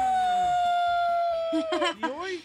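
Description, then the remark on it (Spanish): After a long sustained whining tone, an old, drunk man cries loudly in a series of wavering, wailing sobs that rise and fall in pitch. “¿Por qué está llorando usted, viejo borracho?”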